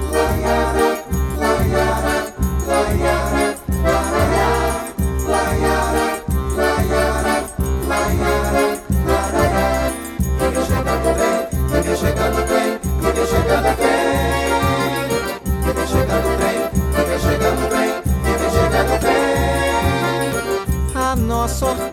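A full accordion orchestra plays a lively sung track with a steady, pulsing bass beat and sustained, reedy chords. The music is loud and continuous throughout.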